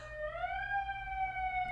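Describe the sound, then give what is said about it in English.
A fire truck siren wails outside, a steady tone that sweeps upward and then holds high and loud over a low background rumble, with no talking. “And there's a fire truck going right outside, but.”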